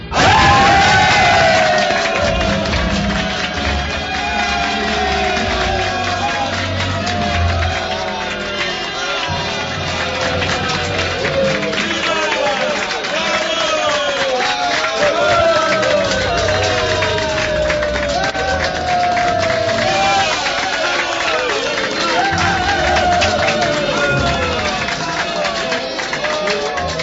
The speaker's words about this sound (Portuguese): A competição dos carros é o primeiro número a ser apresentado. A plateia vibra quando morrem na arena os primeiros cocheiros e cavalos, vítimas de acidentes fatais.